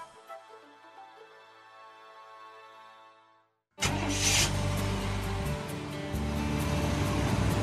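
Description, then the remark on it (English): Pam Jahnke's suburban truck driving across Wisconsin: the engine roars in abruptly after a soft, fading tone, its loud rumble and road noise sustaining steadily to the end with no one speaking. “There goes Pam Jahnke across Wisconsin in her suburban truck.”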